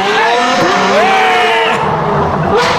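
A car engine hums and revs, its pitch sliding up and down as it drives past over a steady wash of road noise, with faint voices in the background; the car is driving around in circles here, coming past again.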